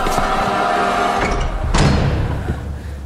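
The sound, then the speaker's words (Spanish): A wooden door slams shut once, a single loud, heavy bang partway through with a low booming tail, set against a steady dark background drone and no voices. “El brazo cerúleo avanzando vertiginoso hacia mí, agarrando al gato por la cola rapidez increíble lo arrastró retorciéndose detrás de la puerta que se cerró de un portazo, dejando en la madera huellas de dedos ensangrentados.”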